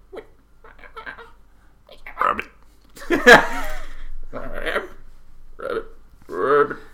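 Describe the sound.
A voice imitates a frog with a series of short, throaty croaks and burp-like bursts, one louder rasping croak in the middle.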